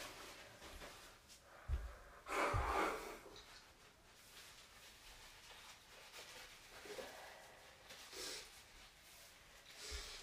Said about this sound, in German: Jetzt muss ich mir nur noch ganz kurz die Nase putzen. Einen Moment.